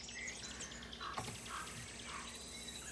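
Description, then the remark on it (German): Pre-recorded sound effects of birds chirping and twittering steadily over a dense background of high, continuous cricket chirring, added to a film's meadow scene for a soft summer-meadow ambience with no one speaking. “Vogelgezwitscher passt gut zur Wiese.”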